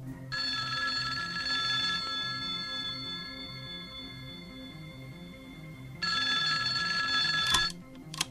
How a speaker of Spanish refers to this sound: Instaló el transmisor en la mesita del teléfono y fue a prepararse un té a la cocina. En aquel instante sonó el teléfono.